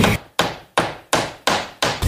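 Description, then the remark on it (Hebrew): A hammer drives nails into wood while building a sukkah, with six sharp, loud blows in a steady, quick rhythm, each strike ringing briefly before the next. No talking. “הכי חשוב שבונים סוכה זה פטיש ומסמרים וארבעת המינים.”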